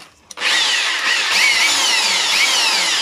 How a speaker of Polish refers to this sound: Czyli wiertarko-wkrętarka